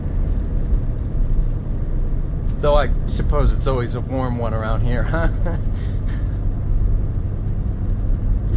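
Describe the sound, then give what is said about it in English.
Steady low road rumble fills a car interior from start to finish, a constant droning hum beneath a man's brief remark and a short laugh in the middle. “This is a fine car, by the way.”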